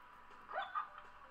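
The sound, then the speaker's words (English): A dog gives a couple of short, high whimpering yips in quick succession, soft and fairly faint against a quiet background, with no one talking. “Uh, make sure you have a dog, very important to have a dog.”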